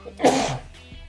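A single sharp sneeze bursts out, loud and breathy for a fraction of a second before fading into quiet.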